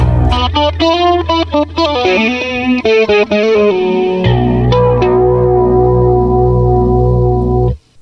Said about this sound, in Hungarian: Ez most egy hatalmas nagy 4x12-es láda van be mikrofonozva, azt, mod, azt szimulálja.